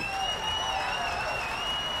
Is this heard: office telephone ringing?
no